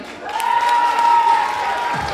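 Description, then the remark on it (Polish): An audience applauds steadily for about two seconds for a young girl at a children's contest, a dense wash of clapping with a sustained whistle-like tone riding above it. “Brawo”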